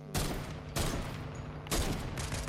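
Three loud video game sniper shots crack out about a second apart, each followed by a long, rumbling echo that fills the gap before the next shot. No voices.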